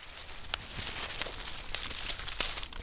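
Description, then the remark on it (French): Dry, half-rotten dead branches being snapped by hand, breaking easily with four sharp cracks spaced about half a second apart over a steady rustle and crinkle, fairly quiet, with no voices. “ces branches qui maintenant sont à moitié pourries, donc elles se laissent casser très facilement”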